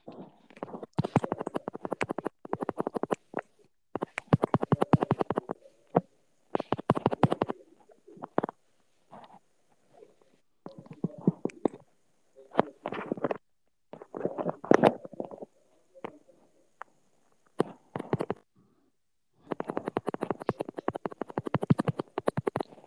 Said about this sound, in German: Hat hier irgendwie gerade jemand ein Schussproblem oder warum klopft es einfach? Äh, nein, wieso? Weil jemand gerade einfach die ganze Zeit äh, richtig doll, doll irgendwo hinhaut.